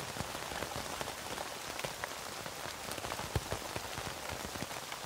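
Steady rain patters onto a tent, a dense, even hiss of countless drops with occasional sharper individual splats, continuous, with no voices.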